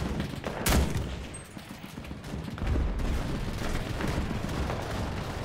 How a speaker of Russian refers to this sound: Ну чё, моя снайперская стрельба меткая помогла все таки чуть-чуть прорваться.